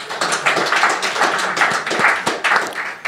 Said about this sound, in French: Applaudissements pour Stéphane Aubet, s'il vous plaît.